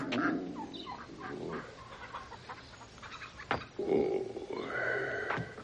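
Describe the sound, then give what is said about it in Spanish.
A hen on a farm clucks and squawks agitatedly after being kicked, a flurry of sharp, rapid calls with a brief thump midway, then more excited cackling against a faint farmyard background. “En la granja, Tevie patea a una gallina.”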